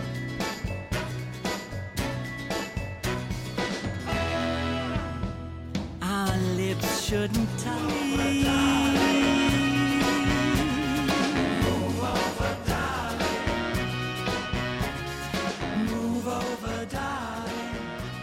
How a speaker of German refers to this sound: Das war der Song … von …